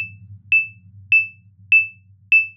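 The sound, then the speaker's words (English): A steady electronic beep repeats four times at an even, brisk pace of 100 beats per minute, the tempo for CPR chest compressions, each short tone bright and clear over a low background hum. “The 100 beats per minute.”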